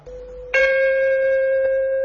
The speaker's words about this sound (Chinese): 您现在听到的钟声和它两千年前发出的声音是一样纯美嘹亮。精灵手巧的古代工匠们给每口钟人工开凿出不同的发音部位。他们的发音频率与当代国际音标相差无几。